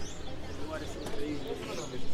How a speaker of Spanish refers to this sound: Pajaritos suenan. Sí, ¿Son reales? Sí, esos sí son reales. Allá arriba. De los que hay que mirar desde el lado y no desde abajo.